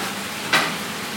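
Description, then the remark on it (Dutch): A sudden burst of sizzling as tomatoes are added to a hot pan while making peanut soup, a bright hiss that flares up sharply and then fades into a steady low crackle of frying. “Oké, wat we dan gaan doen is gaan we de tomaatjes erbij doen.”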